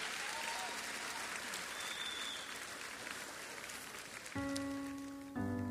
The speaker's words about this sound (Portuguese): Com licença, senhores. Muito obrigado. Uma salva de palmas para o Gus Santos.